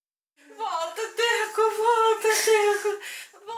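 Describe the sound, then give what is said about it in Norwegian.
A woman cries out in a long, high, wavering wail, sobbing continuously for a few seconds, fairly loud with nothing else audible; a mother grieving in the small town of Brumaginho after millions of litres of mine sludge and water flooded the area. “Fortsatt gråter mødrene i Brumaginho, småbyen som ble så brutalt rammet da flere millioner liter med slam og vann oversvømte området for seks uker siden.”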